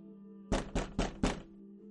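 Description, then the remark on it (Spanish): Four quick, solid knocks on a door in an even rhythm, fairly loud, with a low steady hum in the background and no one speaking; someone knocking on the door a second time. “Volvemos a pegar de nuevo, sí. Toca de nuevo.”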